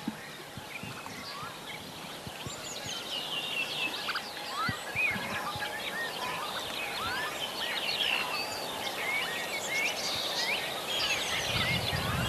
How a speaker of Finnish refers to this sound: Siellä on laulurastas kuuluu toiselta puolelta vissiin. Tai sitten heijastuksena tästä metsäpuolta.